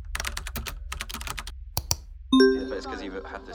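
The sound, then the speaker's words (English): Quick keyboard clatter gives way to a single bright electronic beep from a phone, a clear reminder tone signaling that a teleconference is starting, ringing out and lingering briefly before fading, louder than the typing. “One afternoon, my phone let out that little persistent beep that reminded me my next teleconference was starting, and I sprinted upstairs to my office.”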